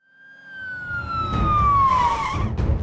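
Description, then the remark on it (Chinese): A police car siren wails in a single long tone that slowly slides downward in pitch, growing louder over a rumbling engine and road noise as the police car arrives and stops at the door of a pharmacy that was just robbed, with no one speaking. “警车在药店门口停下，拉布拉多警长和杜宾警员从车上下来，冲进了刚刚被抢劫的药店。”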